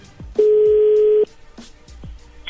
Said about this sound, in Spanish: A ver, permíteme, se está marcando de nuevo.